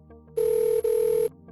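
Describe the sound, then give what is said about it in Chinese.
A telephone ringing as a phone call is placed: a steady, mid-pitched electronic tone sounds twice in quick succession with a tiny break between, loud and clear, with no voices. “再给小李打了个电话。”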